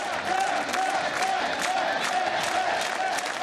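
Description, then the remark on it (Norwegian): A crowd of German Social Democratic (SPD) supporters cheers and shouts steadily for chancellor candidate Per Steinbrück, with many voices merging into a loud, continuous roar and bursts of rhythmic chanting. “Men selv om tilhengerne hyller sin Per med taktfaste rop”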